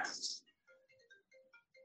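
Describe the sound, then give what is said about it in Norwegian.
A phone ringtone plays a quick, melodic pattern of electronic beeping notes, fairly soft, following a brief burst of noise at the start, as a call comes in at a home office. “Nå ringte, ringte det her hos meg, da.”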